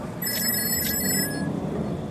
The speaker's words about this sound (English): Do you hear that? It's a phone. Oh, wait, wait, where's it coming from?